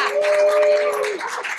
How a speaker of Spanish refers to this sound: Y quiero recibirlo con un fuerte aplauso.